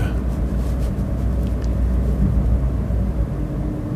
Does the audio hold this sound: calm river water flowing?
no